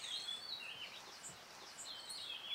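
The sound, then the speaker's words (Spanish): Birds sing and chirp continuously in high, warbling phrases in the gardens of Montaña Azul, several calls overlapping, with a soft, steady outdoor hum beneath and no one speaking. “escuchar el canto de esas aves.”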